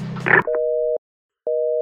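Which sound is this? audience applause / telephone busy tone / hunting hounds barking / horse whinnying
telephone busy tone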